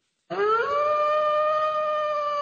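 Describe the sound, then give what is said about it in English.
A voice imitates a wolf howling: one long, loud howl that swoops upward at the start, then holds a steady, clear pitch for about two seconds with no other sounds around it. “who oftentimes, particularly when there uh, is a full eclipse or a blood moon, can be found in Central Park baying to the moon.”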